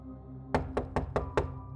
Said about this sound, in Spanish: Llamé un par de veces a la puerta esperando la voz de Víctor indicándome entrar, pero no obtuve respuesta.